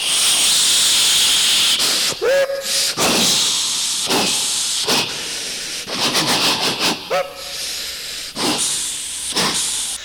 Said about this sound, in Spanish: el tren se ponía en movimiento.